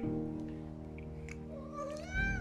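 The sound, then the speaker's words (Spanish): A cat meows in one drawn-out, wavering cry that rises in pitch toward the end, over a steady low hum and with no one talking. “Ah, un gato.”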